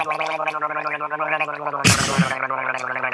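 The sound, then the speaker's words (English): A steady, throaty gargle bubbles for about three seconds over a low voiced hum, broken near the middle by a brief harsh, sputtering burst before the rattling gurgle resumes. “You think he gargled a little bit of that muddy water?”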